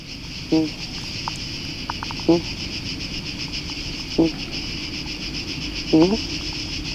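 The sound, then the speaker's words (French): A dreaming rabbit in its burrow, recorded by sound painter Knut Victor, gives four brief, soft squeaking grunts at roughly even intervals over a steady high insect-like hum, with quiet rustling between. “Ouais, c'est un enregistrement dans un terrier de lapin.”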